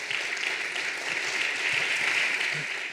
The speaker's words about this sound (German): Äh, Katja Lewina bitten wir auf die Bühne. Begrüßt sie mit einem fetten Applaus.